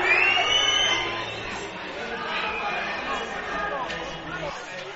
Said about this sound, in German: Ja, ist Frage jetzt, ob die, ob das Bu der Zuschauer hier in Stuttgart jetzt der, der eigene Mannschaft auch gilt.